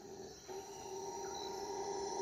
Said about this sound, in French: un singe hurleur entame une grave mélopée qui se transforme petit à petit en un grondement. Il couvre bientôt tous les autres sons. Avec sa gorge énorme, l'imposant mâle s'éveille et fait part de son humeur à ses congénères.